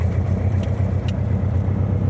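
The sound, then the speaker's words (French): A piston aircraft engine starting up rumbles loudly, a steady, deep throbbing drone that holds constant throughout, with no voices. “Voilà, on démarre.”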